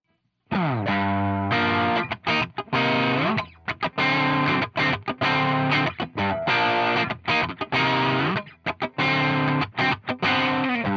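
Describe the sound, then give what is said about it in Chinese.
A distorted, effects-heavy guitar riff of choppy chords plays alone, its mid frequencies boosted by EQ so it rings out loud, full and bright without deep bass or sparkling highs. “那因为呃一个声音大部分我们人耳听到会会去注意到的频率都在中频部分，所以你可以可能会觉得中频被强调的时候会就是声音会比较洪亮。”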